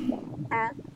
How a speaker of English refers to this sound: Believe it or not, that was my stomach growling.